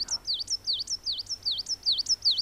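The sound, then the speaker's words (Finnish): A songbird sings the same short, high whistled phrase over and over, six quick repeats with a steady rhythm, each note dipping down then sweeping back up, clear against a faint low hum. “Mutta tässäkin se, että se toistaa tota samaa säättä koko ajan, että se ei lähde tuosta polulta yhtään mihinkään, mm.”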